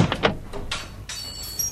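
A door swings open with a quick rattle of latch clicks followed by a brighter, drawn-out scraping creak, moderately loud, with no voices.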